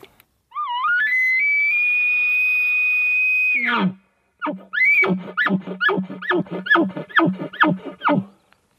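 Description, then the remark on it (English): An elk bugle blown on a latex diaphragm call: a high, whistling tone climbs and holds for about three seconds, drops to a low grunt, then comes a rhythmic run of about eight loud chuckles. “it's what we found is different people respond better with those calls uh, on on the variable of that stretch and latex.”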